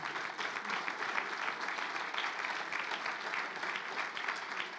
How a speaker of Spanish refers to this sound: Dale un fuerte aplauso al Señor.